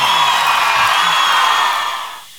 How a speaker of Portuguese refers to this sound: Tanta gritaria.